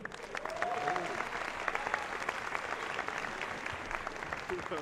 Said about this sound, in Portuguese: Queria dizer que, mano, a Cris Paiva, uma salva de palmas, que ela é muito talentosa, apesar das minhas piadas, ela tem muito talento, viu?